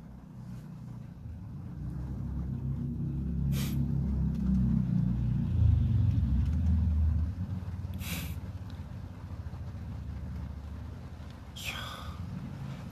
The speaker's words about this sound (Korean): 근데 나도 지금 너무 좋은 게 이 비소리 빗소리가 되게 너무 좋다. 근데 너무 많이 오는 것 같기도 하고.